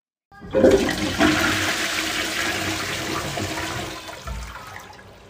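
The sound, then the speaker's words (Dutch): A toilet flushes with a sudden loud whoosh of rushing water that churns steadily for several seconds, then gurgles and tapers off as the tank refills. No one speaks. “Toen de paarse bliksemschicht zijn klasgenoten en juf raakte, zat hij op het toilet.”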